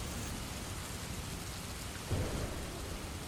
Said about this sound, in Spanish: Inútil. Cualquier esfuerzo de quedarse seca era inútil bajo esa tormenta.